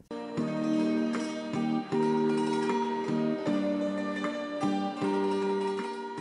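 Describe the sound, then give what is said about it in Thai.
A khim, the Thai hammered dulcimer, plays a bright, ringing melody with struck notes that shimmer and sustain, repeating a steady phrase in the foreground with no voices; a solo performance by a young player with Down syndrome. “นี่คือเสียงขิมนะคะคุณผู้ฟังดนตรีไทยที่เราน่าจะรู้จักมักคุ้นกันดีค่ะเป็นฝีมือของน้องๆ ที่เป็นดาวซินโดรมนะเรียกว่าโชว์เดี่ยวขิมได้แบบสบายๆเลย”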